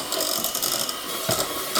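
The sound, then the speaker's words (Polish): An electric mixer mixes cake batter, whirring continuously with a buzzy, clattering mechanical rattle as its speed is gradually increased, with a brief surge in intensity near the end. No voices are heard. “stopniowo zwiększam obroty.”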